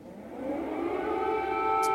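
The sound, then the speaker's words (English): An air raid siren wails steadily in Kiev, Ukraine, its sustained tones slowly rising in pitch and swelling louder over the two seconds, with no speech present. “Sara Sidner in Kiev, Ukraine, as the alarms go off.”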